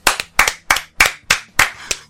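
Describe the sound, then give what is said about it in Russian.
A person claps their hands about seven times in a steady, fairly quick rhythm. Each clap is sharp and crisp, and there is no talking. “А потом я смотрю, кто режиссер и кто, и кто там а, актеры, как их зовут кидаешь салфетку в сторону и хлопаешь.”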